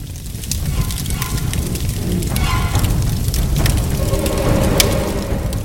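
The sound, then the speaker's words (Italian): Rubbish burns inside a rubbish chute, the fire crackling and roaring steadily with a deep rumbling undertone and scattered sharp pops and snaps throughout, fairly loud and continuous. “Chissà cos'altro aveva preso fuoco tra i rifiuti.”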